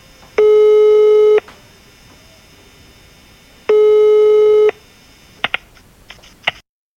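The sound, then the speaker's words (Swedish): Two long, steady electronic ring tones from an outgoing phone call to a match coach, each about a second and spaced a couple of seconds apart, followed by a few sharp clicks as the line is picked up. “ska vi ringa honom direkt eller?”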